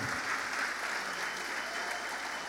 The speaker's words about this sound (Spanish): ¿Por qué no hace un fuerte aplauso al Señor? Amén. Vamos iglesia.